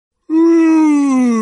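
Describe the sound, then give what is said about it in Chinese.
A voice imitates the cartoon bear Da Xiong (Big Bear) groaning as he finally wakes from winter hibernation: a single long, loud, moaning note that begins abruptly and slides slowly lower in pitch for over a second, with no other talking. “是大熊的声音，大熊终于睡醒了。”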